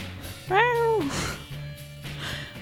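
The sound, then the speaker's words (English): A single drawn-out meow, voiced by a person imitating a ferocious little cat, rising then sliding down in pitch, fairly loud over a low steady hum. “oh, so you're quite a ferocious little kitty.”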